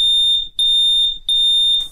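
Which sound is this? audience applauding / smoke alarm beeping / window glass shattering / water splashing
smoke alarm beeping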